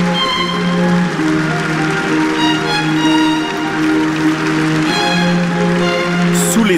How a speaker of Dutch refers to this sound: applaudissements.